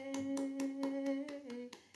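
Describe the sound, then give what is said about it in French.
Hands clap in a quick, even rhythm, roughly eight claps in two seconds, clear over a steady low humming tone that fades near the end. “Bravo à toi, applaudissez.”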